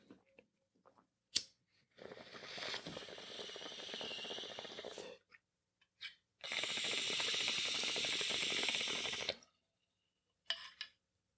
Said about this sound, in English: Yeah, speaking which, we have not hit anything. I got so excited about talking about the Lakers, we have not hit the bong this morning. So it is called the Monday morning wake and bake.